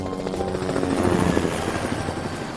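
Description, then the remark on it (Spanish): A hired helicopter waiting at the airport in São Paulo, Brazil: its rotor thumps in a steady, rapid pulse over a loud, continuous engine drone, filling the whole clip with no voices. “En realidad no pude disfrutar nada de la ciudad, ya que nada más llegar al aeropuerto, me esperaba el helicóptero que me contrataste.”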